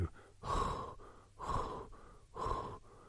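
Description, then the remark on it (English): A person breathes heavily and audibly, three loud, airy breaths about a second apart, demonstrating the deep breathing of someone drifting off to sleep, with no talking. “There's a lot of breath going on, but there's not much juice.”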